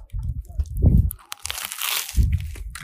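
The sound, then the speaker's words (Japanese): Crisp, crackly crunching as someone bites into a toasted baguette sandwich with roast beef, onion, lettuce, cabbage, potato and honey mustard sauce, outdoors on a mountain in sunny weather, with a couple of brittle crunch bursts and low thuddy chewing, no talking over it. “で、パンがさ、めっちゃサクサクなよ。ね。聞こえますか、これ。”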